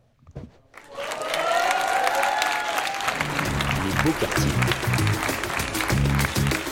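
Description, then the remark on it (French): An audience applauds guest Medine, breaking into loud, sustained applause after a brief quiet start, with cheers and whoops rising over the clapping before it settles into a steady, dense roar of hands. “avec Medine que vous applaudissez très très fort”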